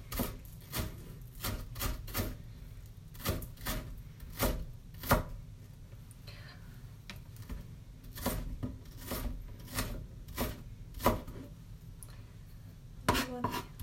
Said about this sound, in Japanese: なんかみじん切りの方法ってこう包丁を縦に入れてその後傾向に入れてみたいなのあると思うんですけど私はこの刻む時間がすごい好きなのであえてザクザク何回もこう切る方法でやっています。